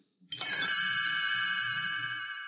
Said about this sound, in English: This is the story of Ewoks: The Battle for Endor. You can read along with me in your book. You will know it is time to turn the page when you hear the chimes ring like this.